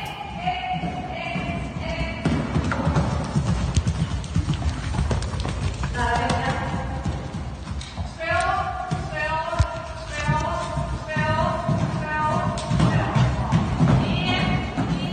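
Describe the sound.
A horse's hooves thud and clip-clop in a steady, rolling canter across soft ground as the horse Trolle jumps a pay-and-jump course of eight obstacles at the riding school in Tingsryd, clearing all without faults; indistinct voices carry on throughout, with a person at each obstacle calling out its number.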